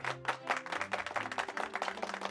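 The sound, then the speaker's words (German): An audience in a festival hall applauds with a dense patter of many clapping hands, steady and moderately loud, over sustained low tones of an orchestra playing, for a couple of seconds, with no one speaking. “Das Publikum applaudierte.”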